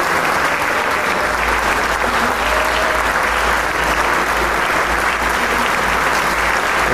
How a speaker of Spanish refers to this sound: Los músicos se aplauden entre sí, se felicitan, pero el público no deja de aplaudir.